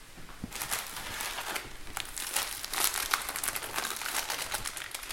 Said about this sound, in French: Donc là, on a mis du papier cuisson sur euh, la plaque de cuisson.